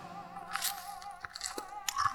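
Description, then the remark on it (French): A rear admiral bites generously into a piece of bread spread with a large portion of sweet jam, a crisp crunching bite followed by a few wet, irregular chewing sounds, with no one speaking. “Peux-tu me rapprocher le pot de confiture, s'il te plaît Le contre-amiral étala une large portion de la gelée sucrée sur un morceau de pain et croqua généreusement dedans.”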